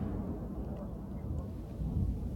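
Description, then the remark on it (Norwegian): Battlefield sounds from the front line at Bakhmut in Donbas, Ukraine, in winter with snow on the ground: a deep, continuous rumble with muffled low booms rolling, steady and heavy throughout the short stretch, with no clear sharp blasts. “Vi hører lyd fra fronten i Ukraina. Det er fra Bakhmut i Donbas.”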